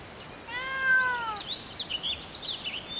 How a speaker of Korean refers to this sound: 고양이가 괜찮다는 듯이 야옹 하고 울었다.